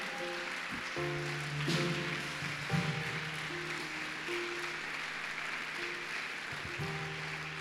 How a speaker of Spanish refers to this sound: Vamos, dale ese aplauso fuerte al Rey.